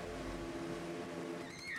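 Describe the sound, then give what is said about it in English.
A motorboat engine drones steadily with a deep, even rumble, loud for the whole stretch, with a faint rising whine near the end. “We get off the boat”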